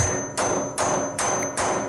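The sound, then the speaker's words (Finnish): A hammer strikes a metal pipe four times at a steady, even pace. Each blow is a sharp clang over a faint, high ringing tone that lingers between hits. No one speaks. “Tässä on Hammer Hitting Metal Sound Effect.”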